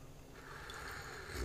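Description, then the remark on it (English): A quiet sip of coffee: a soft, airy slurp that swells slightly partway through and holds as a faint hiss of drawn-in liquid, with no talking. “Let me get this sip of coffee.”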